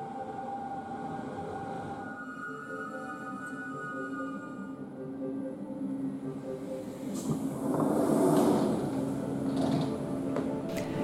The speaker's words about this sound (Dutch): Ik kom aan op het eh, perron. De trein komt aan, de trein stopt. Ik zie de conducteur eruit komen.